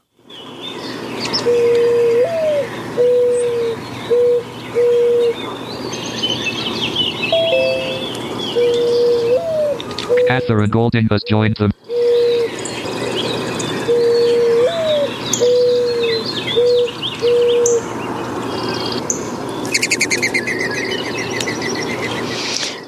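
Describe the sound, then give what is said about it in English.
A male mourning dove in spring coos low and mellow in repeated phrases over background birdsong, broken midway by a brief, fluttering high whistle of its wing feathers as it takes off. “the mourning dove that we were just talking about”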